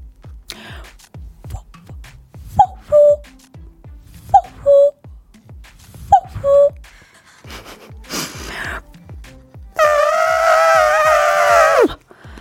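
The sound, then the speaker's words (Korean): A voice mimics a cuckoo with three evenly spaced two-note calls, then switches to a loud, sustained, trumpeting squeal like a baby elephant that bends downward at the end, over faint rhythmic ticking. “네, 앞서 들으신 건 뻐꾸기 소리였고요.”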